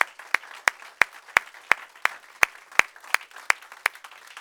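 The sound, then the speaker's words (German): An audience applauds in steady unison to welcome the people watching today, sharp claps landing evenly about three times a second over a continuous wash of scattered clapping, loud. “Und wir wollen euch ganz herzlich und ich möchte euch bitten, dass wir gemeinsam das tun, die Menschen, die uns heute zuschauen, mit einem kraftvollen Applaus begrüßen.”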